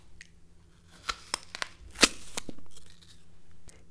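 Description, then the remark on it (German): Someone bites into a juicy apple: a few crisp cracks build to one loud, wet crunch, followed by a second of moist chewing and munching, with no talking. “Genau, es ist der Biss in einen saftigen Apfel.”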